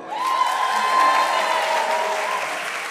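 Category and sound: crowd, audience applause and cheering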